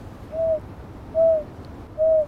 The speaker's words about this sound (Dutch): Oh, en hier holenduif, jongens. Ja. Denk ik. Ja, holenduif